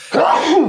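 A single loud sneeze bursts out after a brief quiet moment, a voiced, wailing cry that rises and then falls, lasting just over half a second.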